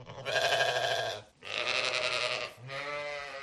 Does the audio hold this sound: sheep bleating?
yes